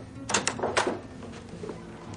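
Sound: door opening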